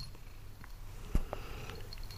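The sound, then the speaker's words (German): A neutered male cat purrs softly and steadily, a low continuous rumble with a small bump partway through, and no one talking. “Jo, träumst von schönen Katzen, ne?”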